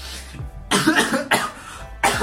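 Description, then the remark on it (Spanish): A fit of harsh, rasping coughing from someone who choked after talking for 30 minutes without a sip of water: three or four forceful bursts in quick succession with brief gasping pauses between them, loud with no talking. “me ahogué, ya que tengo 30 minutos hablando y no he tomado ni un sorbo de agua.”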